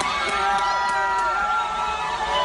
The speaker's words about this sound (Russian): Ну, человеческие звуки, значит, вот так звучит большая группа. В следующий раз они так поорут не скоро.